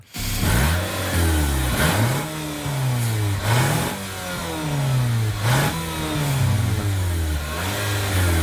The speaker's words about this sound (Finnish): Ostaisitko tämän auto? No äänen perusteella joo. Vähän mm. tiedän autoista, mutta äänen perusteella periaatteessa pystyisi ostamaan.